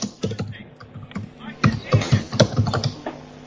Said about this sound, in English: I can hear you typing. Your microphone's on.